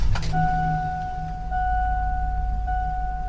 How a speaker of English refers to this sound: That's the sound of the school bus. Many of you are probably very familiar with that sound.